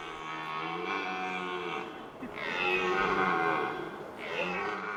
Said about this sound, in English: About 2,000 deer inhabit the park, so don't be alarmed if you hear the wild roar of a feisty male. It's eerie and quite hilarious at the same time.